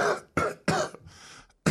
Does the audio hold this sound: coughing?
yes